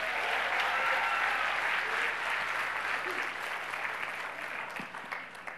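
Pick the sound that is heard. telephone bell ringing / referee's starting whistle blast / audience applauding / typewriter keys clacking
audience applauding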